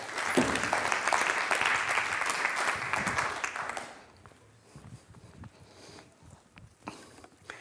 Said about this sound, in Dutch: voor nu rest me niets anders dan te vragen om een warm en heel hartelijk applaus voor filosoof